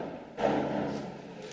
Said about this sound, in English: neighborhood hoodlums that are opening and closing the door. Invite them in.